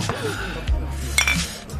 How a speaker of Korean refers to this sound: 자, 아, 아, 짠. 아, 아니, 아, 많이 마신 것 같아요. 아, 겨우 소맥 다섯 잔 갖고. 어. 자, 짠.